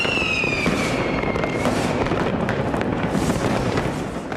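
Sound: fireworks exploding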